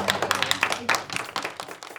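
A school class applauds a visiting guest after a Q&A session, a dense, steady patter of many hands clapping at once, moderately loud and fairly even for the whole stretch, tapering slightly toward the end.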